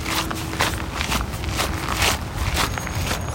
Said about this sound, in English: And that's the sound of four feet walking, two human beings walking side by side along the park, along the granules of the sand around the park trail in Maricopa.